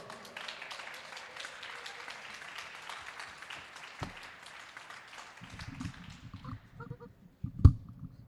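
A crowd claps steadily for several seconds, a dense crackling wash with some high cheers or whoops mixed in, then the applause fades into quieter murmuring and ends with a sharp knock.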